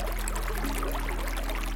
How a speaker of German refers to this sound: Vom sanften Plätschern eines irischen Baches